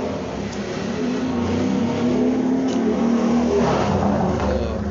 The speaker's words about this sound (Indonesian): ada motor-motor balap apa ya dibalapin